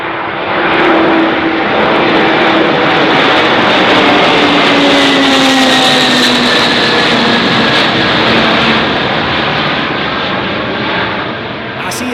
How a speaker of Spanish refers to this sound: como la guerra destruyó un sueño, el del Antonov AN-225 Mirilla, uno de esos aviones icónicos que como el Air Force One o el Concorde, cualquier aficionado profesional del sector tiene grabados en su mente.